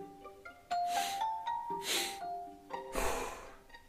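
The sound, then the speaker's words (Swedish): Two sharp breaths drawn in through the nose in a row, a short pause apart, followed by a longer breath out, a technique for calming down when stressed or nervous, with soft background music playing throughout. “Och det finns faktiskt en sak då som har vetenskapliga bevis för att det faktiskt funkar och det, det är att göra två inandningar i rad via näsan innan du andas ut.”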